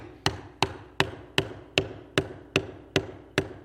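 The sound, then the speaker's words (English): Nine sharp hammer strikes land in a steady, even rhythm, each a crisp knock as something is driven in, with no talking between the blows. “Hold the hammer down there a little bit more.”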